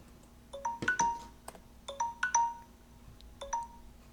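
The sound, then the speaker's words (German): An electronic alarm tone plays from a device: short bright melodic beeps in three quick repeating bursts, clear, over a faint steady hum with no talking. “ich wollte bloß mal, hier, so einen Alarm habe ich, ne?”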